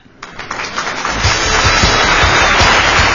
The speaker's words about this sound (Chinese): 哎呀，这掌声，这掌声！你说做一个主持人，你说做一个主持人没啥可向别人炫耀的，最值得炫耀的就是这么给力的听众。